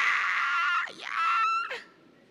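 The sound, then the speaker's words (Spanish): A person voices a harsh, high-pitched shriek, imitating the cry of a black creature with horns. It's loud, wavering through a brief dip midway before rising again and trailing off, with no other sounds. “Él no ejerce violencia, no tiene que venir como, como una criatura negra con cuernos y con un chillido.”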